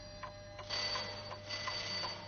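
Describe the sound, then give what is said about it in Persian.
A household clock ticks steadily, each tick crisp and evenly spaced at a moderate volume with no voices present. “تیک تیک ساعت که دقایق ترس و نومیدی رو اعلام می کرد همچون صدای قررش رد تمام جونم رو به لرزه در می آورد”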